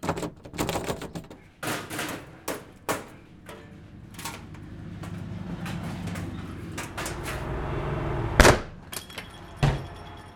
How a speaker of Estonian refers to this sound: kuna uksed ja aknad on kinni, ei jäägi neil muud üle, kui maja uks jõuga lahti kangutada ja lukusüda puruks peksta